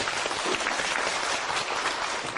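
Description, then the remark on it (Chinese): A class of students claps steadily for themselves at the teacher's request, many hands blending into a dense, even wash of applause that holds at a constant level for the whole moment, with no voices standing out. “好的，举手我看一下，给自己掌声鼓励一下哈。”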